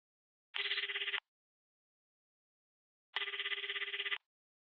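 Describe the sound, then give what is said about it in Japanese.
A mobile phone call rings in two trilling bursts, a short one followed after a pause by a longer one, clear with silence around them and no voices. “そしてそこで携帯をかける。”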